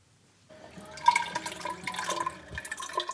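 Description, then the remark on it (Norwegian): Rainwater being poured into a measuring jug by a precipitation observer early in the morning at Brekke in Gulen, Sogn: a steady trickling splash that starts abruptly and runs continuously, with a rising gurgle as the vessel fills. No one speaks. “Det er tidlig på morgenen, men lyden du hører er ikke av varm kaffe, men av regnvann som blir målt opp.”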